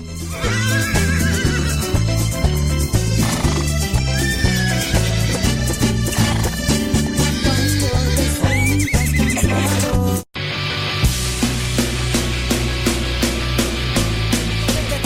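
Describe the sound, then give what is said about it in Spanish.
A horse neighs and whinnies over loud, steady music with a thumping bass beat. The music cuts out briefly near the end, then returns. “caballo, no relinches. Espérate, caballo.”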